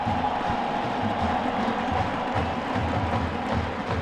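A large Virginia Cavaliers stadium crowd cheers in a steady, sustained roar as the big scoreboard displays "Welcome back, Bronco" for coach Bronco Mendenhall, a dense wash of voices at an even, moderately loud level for several seconds with no single voice standing out.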